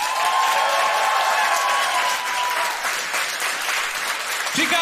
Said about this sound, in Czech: Teď! Přesně tenhle aplaus